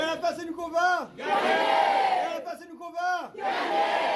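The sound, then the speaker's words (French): A large crowd of striking workers loudly chants a protest slogan in unison, the famous slogan of François Ruffin, deputy of the Somme, the rhythmic phrase repeating twice with rising and falling shouts, full, with no separate speaker. “Les salariés mobilisés ont reçu hier le soutien de deux élus de gauche, Arthur Delaporte, député du Calvados, et François Ruffin, député de la Somme, qui a scandé son fameux slogan.”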